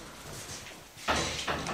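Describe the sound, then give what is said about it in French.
A heavy holy door of a basilica opens with a sudden rattling rush of noise as someone enters, followed moments later by a second clunk, against a hushed background. “Voilà, on a franchi cette porte sainte et nous voilà dans la basilique.”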